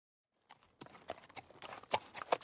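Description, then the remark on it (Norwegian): A horse walks at an unhurried pace on a morning ride around a small lake, its hooves clopping in a steady, uneven rhythm of sharp knocks on firm ground, with no voices. “Hesten Rocky skritter i vei på den faste morgenturen rundt et lite vann”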